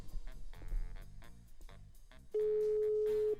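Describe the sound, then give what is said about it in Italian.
A single steady ringback tone on an outgoing phone call sounds for about a second near the end, clear and fairly loud over busy background music; the call goes unanswered. “Squilla però, squilla.”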